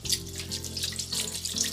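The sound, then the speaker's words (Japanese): A kitchen knife that is sticky from cutting okra being rinsed under a running tap: a steady, bright hiss of flowing water with small splashing fluctuations as the blade moves through the stream, with no talking. “オクラを切った後の包丁ってちょっとこう粘りがついてるのでなるべく早めに洗っておくといいと思います”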